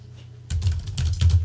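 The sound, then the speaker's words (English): Clattering computer keyboard typing starts abruptly after a brief quiet stretch, with rapid keystrokes in quick bursts and no talking. “Listen to those keys get typed.”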